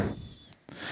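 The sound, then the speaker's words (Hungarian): Wet rasping sounds of a dog licking a person's leg, a soft continuous lapping that briefly pauses and then resumes, with no voices present. “Egyébként mit csinál ilyenkor? Nyalogat, Nyalogat minket.”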